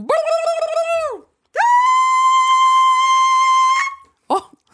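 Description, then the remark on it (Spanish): A voice mimics operatic singing: a wavering held note, a brief pause, then a long, loud sustained high tone with rich harmonics, ending with a short vocal burst. “…, cantante de ópera, natural, natural.”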